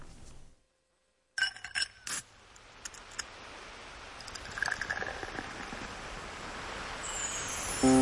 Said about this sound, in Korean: 시작 부분에 나오는 얼음 소리. 바닷소리가 좋아요.